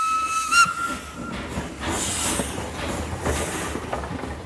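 A steam train pulls away from a station: a sharp whistle blows for about a second, then loud hissing steam and rhythmic chuffing bursts carry on, with no voices.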